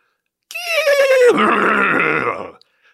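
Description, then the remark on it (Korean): A single loud horse neigh as the Roman emperor Caligula mounts his horse on a beach before charging into the sea, starting as a high, shrill cry that drops in pitch into a rough, quavering whinny lasting about two seconds before cutting off. “그런 다음에 자기도 갑자기 말을 타고,”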